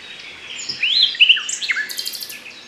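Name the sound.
nightingale song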